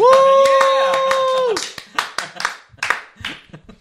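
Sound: hand clapping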